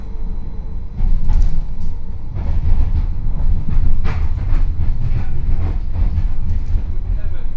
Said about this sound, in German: An einem grauen Mittwoch sitze ich in der Straßenbahnlinie 1 mit dem Ziel Hegelstraße.